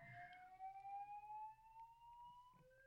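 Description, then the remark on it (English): A faint fire alarm sounds as one continuous whining tone that slowly climbs in pitch and gets louder, with low background rumble and no talking. “Chapter 85-Fire Alarm Fiasco”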